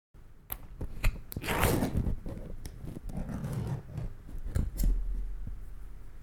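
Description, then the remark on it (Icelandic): Opening a can of mackerel in tomato sauce, a product of the company Orkla: sharp metallic clicks and a crack, then a long rasping, scraping peel of the lid, with a few more ticks and a dull knock at the end. “Svona heyrist þegar menn opna dós af makríl í tómat.”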